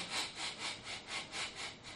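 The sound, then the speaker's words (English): A person breathes heavily into a microphone: quick, heavy breaths rasp in and out in a steady rhythm, about four per second. The hissy, airy strokes sound almost like sawing, with no talking. “It's just, I was just doing a breathing.”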